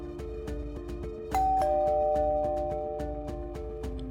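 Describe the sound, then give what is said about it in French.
A single bright doorbell chime rings out and slowly fades, sounding over steady rhythmic background music that continues throughout. “au bruit de la sonnette, craignait alors que l'histoire ne se répète indéfiniment.”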